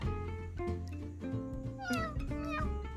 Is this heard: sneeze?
no